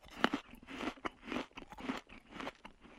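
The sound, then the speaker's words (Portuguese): Loud, messy open-mouthed chewing by hungry people eating at a table, with wet, drooling, crunchy bites repeating in a steady rhythm about twice a second and no talking. “Quando finalmente estamos na mesa e estamos a comer, cheios de fome, mastigamos que nem uns camelos, com aquela boca toda elástica, tudo a babar e o caraças.”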